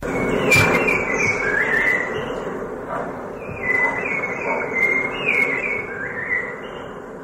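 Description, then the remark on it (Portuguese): Sabiá-cica calls come in a run of shrill, chattering phrases repeated every second or so, over a constant rushing background noise with no voices. “O sabiá sica é bem conhecido aqui em São Paulo. Vamos ouvir o sabiá sica?”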